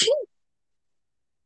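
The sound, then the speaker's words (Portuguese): A single quick sneeze, short and sharp with a breathy hiss and a brief voiced burst, followed by silence. “Saúde,”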